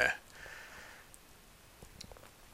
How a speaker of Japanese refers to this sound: お今冷蔵庫が冷蔵庫の製氷機能が仕事してますね